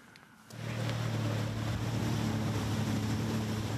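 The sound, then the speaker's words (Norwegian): Jet skis roar up abruptly and hold a steady, droning whine, buffeted by wind and rushing water as they speed at about 65 knots (120 km/h) through the waves off Brevik on the Telemark coast of Norway, over 400 meters from land. “I 65 knop, eller omkring 120 km i timen, suser vannskuterne gjennom bølgene utafor Brevik langs Telemarkskysten.”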